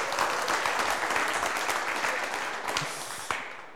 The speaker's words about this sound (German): Also einen donnernden Applaus.